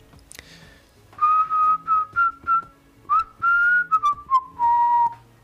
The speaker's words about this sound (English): That's what you have to do. You just whistle. All you gotta do is whistle. Give a little whistle.